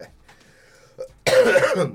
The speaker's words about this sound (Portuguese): eu tô com resquícios de tosse, tá, gente? Então tenham paciência. Paciência, eu tô me, me recuperando uma gripe que eu tive aí, né?